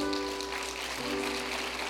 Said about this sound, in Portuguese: Louvado e exaltado seja o nome do Senhor. Amém. Você pode aplaudi-lo?